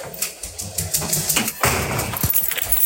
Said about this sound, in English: Sorry, I'm just opening a door.